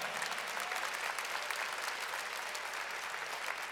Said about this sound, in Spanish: Alguien aquí le da un aplauso fuerte al Señor.